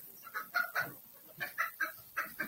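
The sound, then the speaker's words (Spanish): A male rooster that no longer has its comb clucks repeatedly in short, rhythmic bursts, fairly loud, with brief pauses between groups of clucks and no talking. “Este ya es un gallo. Ya, ya es gallo macho.”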